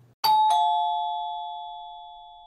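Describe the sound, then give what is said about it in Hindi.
A house doorbell rings at night with two quick chimes, the second tone overlapping the first, then a clear ringing tone slowly decays. The sound is fairly loud, with no voices. “कोई डोरबेल बज रहा था”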